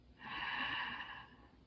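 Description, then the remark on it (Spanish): A single slow, deep inhale through the nose during a guided breathing exercise, swelling over about a second and then fading, with no talking. “Inhalamos.”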